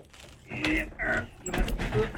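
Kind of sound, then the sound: household object, chair being moved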